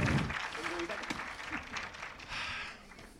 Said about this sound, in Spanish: un aplauso por favor